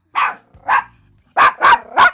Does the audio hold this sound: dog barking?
yes